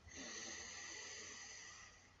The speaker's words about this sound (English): this is an alternate nostril breathing technique called Nadi Shodhanam Pranayama.